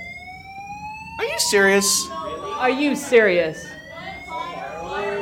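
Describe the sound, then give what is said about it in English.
A building fire alarm blares with a steady, piercing electronic tone that holds throughout, while a person talks loudly and incredulously over it. “And that is the fire alarm.”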